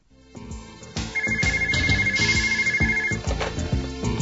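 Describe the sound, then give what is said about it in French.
A telephone rings in a man's home with a melodic electronic ringtone that plays loudly and continuously. The ring repeats musically with steady rhythmic pulses and a sustained high tone through the middle, and no voices are present. “Trois jours après la disparition de son passeport, Rise Pass, le téléphone sonnait chez lui.”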